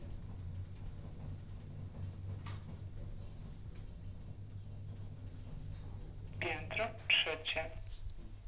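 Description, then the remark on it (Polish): A steady low elevator hum fills the background as the elevator rides up, then near the end a short, clear recorded voice announcement for the third floor plays, lasting only a second or two. “Wyłączyłem wentylator, zaraz będzie komunikat o trzecim piętrze.”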